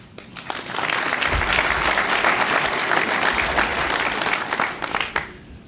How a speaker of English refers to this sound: my colleagues at the American Medical Association, would you all please stand and allow us to thank you as well as those who were not able to be here tonight who have supported me with a round of applause.